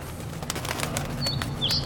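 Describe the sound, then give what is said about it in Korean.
A small young bird that has flown inside a crematorium flutters, its wings beating in a quick run of soft, rapid flaps against faint background noise, with a few brief high chirps toward the end. “웬 새가 화장장 안으로 들어왔는데요?”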